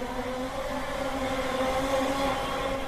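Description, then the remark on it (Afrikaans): A steady electric whir from a group of people on a Segway tour rolling past, several motor tones layered in a continuous hum at even loudness with no talking. “Wat kom hier verby? ons nou hulle mos nou maar die baie dit is mos daardie Segway.”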